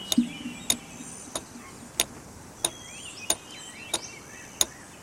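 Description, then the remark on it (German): A hammer lightly taps a nail being hammered into a man's nostril in a steady, even rhythm, about eight crisp clicks over a few seconds, fairly soft, with a quiet background and no talking. “Abgesehen von dem leichten Klicken, das ihr gerade hört, als der Hammer auf den Nagel kopft.”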